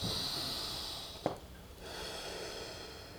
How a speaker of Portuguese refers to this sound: respirei pelo nariz, soltei pela boca e o segundo fiz uma vez.